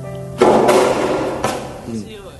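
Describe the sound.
Boys' soft tennis balls being struck: about three sharp, bright pops at uneven intervals, the first loudest, over a steady wash of background noise with faint voices. Recorded at a school.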